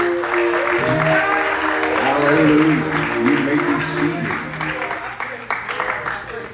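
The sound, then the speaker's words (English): A church audience, told to put their Bibles down and put their hands together, claps and shouts together in a loud, sustained burst of applause and cheering voices, fading slightly toward the end as a single voice speaks over it. “Put your Bibles down, put your hands together, clap and shout.”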